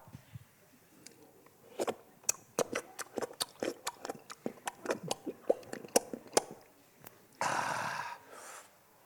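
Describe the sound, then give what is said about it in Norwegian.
A person imitates a dog lapping water with a quick, uneven run of about twenty wet clicking slurps from the mouth, ending in a short breathy rush of air. “Ja, De som drikker med bikkjer, må, må, må, du legge veldig merke til.”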